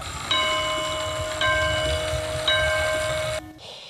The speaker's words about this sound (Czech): Věřím, že jste poznali, že jsem dnes v hodinářství.